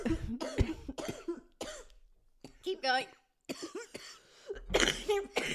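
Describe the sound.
A person talks in short phrases, then breaks into a loud, harsh cough near the end, a couple of rough bursts in quick succession.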